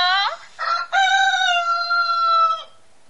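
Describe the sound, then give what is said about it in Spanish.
A single rooster crows loudly, a few clipped notes rising into one long, drawn-out cock-a-doodle-doo that cuts off abruptly, with no talking underneath. “Te suelto hasta un gallo.”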